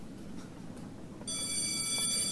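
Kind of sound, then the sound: signal or alarm, school bell ringing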